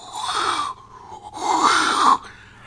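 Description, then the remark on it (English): A voice imitates a wheezing, groaning sci-fi materialisation sound, two rising-and-falling grinding swells with a short pause between, fairly loud, with no speech. “Do you know how they made the sound for the TARDIS?”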